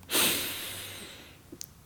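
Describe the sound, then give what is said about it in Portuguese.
A single slow, deliberate, conscious inhalation, a loud airy rush that gradually fades over about a second, followed by a faint small click. No talking. “É uma das coisas que pode ser feita, é, que é bem simples, que qualquer pessoa pode fazer sem nenhum tipo de treinamento e tal, é parar e ter uma respiração consciente, uma inspiração”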